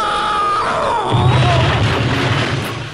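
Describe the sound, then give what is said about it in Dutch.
A loud, dense jingle for the Radio 1 show Weet ik veel: swooping, gliding tones over a wash of noise, joined after a second by a deep rumbling boom that holds, then fades out. No voices. “Sterke jingle.”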